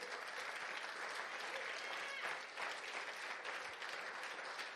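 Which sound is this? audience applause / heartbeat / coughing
audience applause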